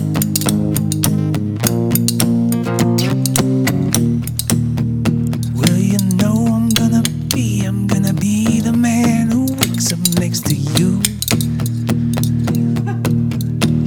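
Spoons are clacked together as percussion in a fast, steady rhythm, loud, running continuously over a backing of sustained music with a wavering melodic line.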